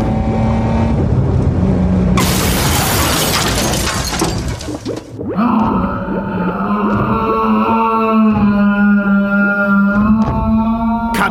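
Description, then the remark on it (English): A small Winchell sedan's engine hums, then it crashes into Copzilla's giant, shiny black shoe with a loud crash and a long burst of shattering, clattering debris, after which the motor keeps whining steadily. No voices. “Suddenly, as Copzilla stuffs yet another glob of corn chips into his mouth, Gil's little Winchell sedan crashes straight into Copzilla's giant, shiny black shoe.”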